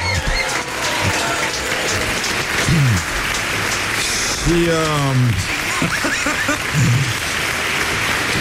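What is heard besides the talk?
audience applause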